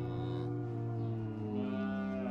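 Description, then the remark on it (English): A cow lets out one long, drawn-out moo, loud and close, holding a steady low tone for a couple of seconds with no voices around it, in a small barn full of cows and other animals on a small family farm. “Nibbles and his family lived on a small family farm in a small barn full of cows and other animals that the McCaskills, the farm owners, might have from time to time.”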